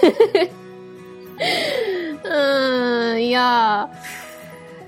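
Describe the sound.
A pet named Ran, in heat, cries out in two long, drawn-out, wavering wails, loud, following a brief laugh and a few spoken words at the start.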